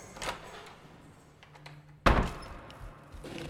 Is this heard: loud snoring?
no